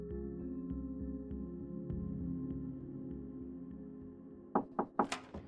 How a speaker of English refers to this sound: Florina woke to a knock at the door